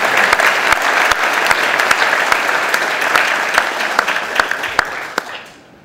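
A crowd applauds with steady, dense clapping that holds for about five seconds and then quickly dies away. No one speaks over it.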